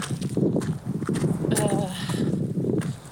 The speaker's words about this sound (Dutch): Ja, ik hoorde gestommel en enorm gebries. Zoiets.